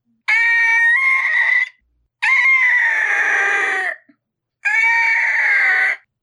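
Three loud, harsh screeching calls from an imagined pteranodon, each lasting over a second with short silent gaps between, shrill and close with a strained, wavering pitch.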